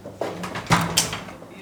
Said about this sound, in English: opened the door leading out onto the balcony. Wow, beautiful balcony.